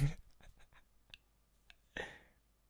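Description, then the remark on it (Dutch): Quiet scratchy strokes of a pen writing on paper, several short marks in a quick uneven rhythm, then a longer rougher scrape after a brief pause, with no talking. “ik heb me net ook horen schrijven.”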